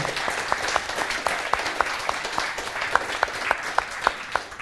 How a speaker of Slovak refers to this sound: A aby ste verili, že nás je tu naozaj veľa, tak vám posielame po celom Slovensku alebo kdekoľvek ste jeden veľký potlesk.